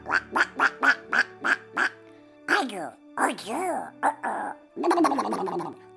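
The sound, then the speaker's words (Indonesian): A storyteller imitates a duck with the mouth, first with a quick run of eight evenly spaced nasal quacks, then a few longer, more drawn-out squawking calls, loud. “Kalau marah ketemu bebek.”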